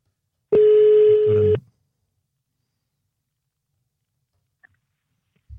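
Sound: telephone tones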